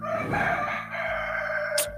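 A rooster crows in one long, drawn-out cock-a-doodle-doo, loud, with a strained, raspy harmonic tone lasting about two seconds and no voices over it.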